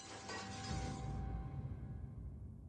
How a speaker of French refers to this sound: Au moment où le fuselage touche terre, l'appareil se met à glisser à une vitesse vertigineuse sur le sol, avant de s'enfoncer dans l'eau et de se désintégrer en mille morceaux. Un lourd silence suit le grand fracas de la ferraille.